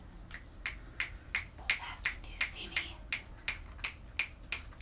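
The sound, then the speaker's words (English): A quick run of about fifteen crisp finger snaps, steady and fairly even in rhythm, crackling with sharp high clicks, offered as poetry applause with no talking over them. “That's me giving my poetry applause.”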